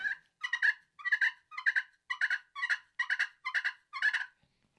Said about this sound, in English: that's a good call to use at that point maybe even to bring him back in as that fighting purr